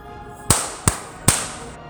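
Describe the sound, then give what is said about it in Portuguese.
Three sharp, loud gunshot cracks fire in quick, slightly uneven succession, each with a brief ringing tail, like a short burst from a sound-effect firefight with no voices. “Aí eles começaram a trocar tiros com com eles.”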